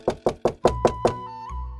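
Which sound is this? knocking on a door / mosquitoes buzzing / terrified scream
knocking on a door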